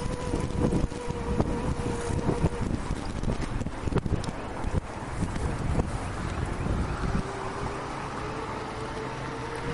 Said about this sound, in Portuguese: O vento tá forte aí agora, mas eu vou falando mesmo assim. É... Deixa eu passar aqui porque o vento tá bem forte. Pera aí, meu vento.